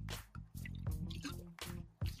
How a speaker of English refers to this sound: Let me get my water in because I got a juicy, juicy elephant of the room today.